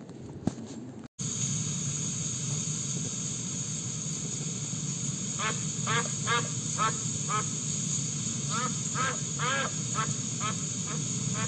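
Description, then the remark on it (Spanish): A duck being delivered to a house to be cooked for the evening quacks in a string of short, nasal bursts, some clustered in quick pairs, against a steady background hiss, with no talking. “Su marido me manda para que le deje este pato, que lo prepare para la noche porque viene con invitados.”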